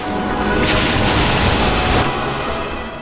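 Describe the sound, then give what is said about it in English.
Loud, booming cannon blasts fired from a turret in a video game, a dense burst of rumbling explosions with a bright crackling hiss in the middle, fading into low rumble. “We're gonna have some cannons.”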